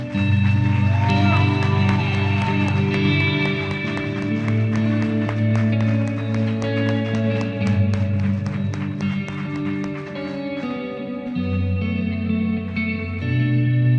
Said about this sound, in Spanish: Dale un aplauso, pero un aplauso grande.